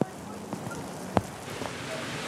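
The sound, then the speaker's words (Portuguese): Heavy rain falls in a steady, dense hiss, with a few sharper taps and splashes standing out now and then, including one louder hit near the middle. The rain is growing heavier, near the border of São Paulo and São Caetano. “Aí a chuva aumentou e a gente teve de correr deixando o nosso bolsonarista para trás.”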